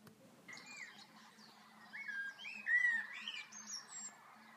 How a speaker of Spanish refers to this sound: En el jardín había pájaros de colores, estaba lleno de vida.